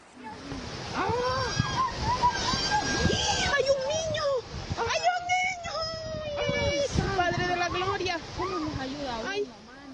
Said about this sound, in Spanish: Y una familia, una familia vivió la tragedia en carne propia cuando a bordo de su vehículo quisieron cruzar las turbulentas aguas de un río, pero el auto fue arrastrado por la corriente.